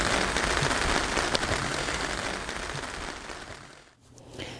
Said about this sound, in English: Cool. It was raining there then.